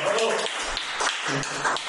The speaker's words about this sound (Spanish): Tenemos, como ya pueden ver, a un invitado de otro planeta, Wilmer Aguirre. Las palmas para Wilmer, ¿cómo está?